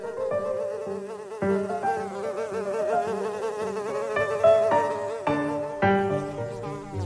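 A fly buzzes loudly for several seconds, its droning hum wavering and shifting in pitch as it circles, with no talking.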